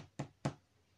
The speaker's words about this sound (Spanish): Y llamó a la puerta.